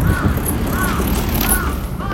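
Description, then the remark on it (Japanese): A crow caws about four times at a steady, unhurried pace, fairly clear, over constant outdoor rumble and street noise. “カラスも鳴いてるぜはいまあね息子さんよ ね、カラスも鳴いてる。”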